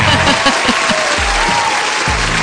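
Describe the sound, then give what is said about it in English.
A crowd applauds steadily, a dense, loud wash of clapping that fills the whole clip, with a few low rhythmic thumps underneath. “Oh, that crowd, you can never keep them appeased.”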